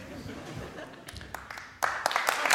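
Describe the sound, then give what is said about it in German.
A few scattered claps break through low murmuring, then a burst of full applause swells up and carries on loudly to the end, many hands clapping at once. “Ab und so einen Applaus. Einfach mal reingestreut.”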